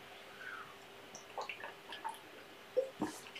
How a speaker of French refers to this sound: Je bois un coup à propos hein, puisqu'on parle d'eau.